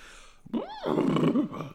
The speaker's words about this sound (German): Ach, da ist da noch ein Pferd, das ja. jetzt sauer ist, weil es eigentlich trinken wollte gerade.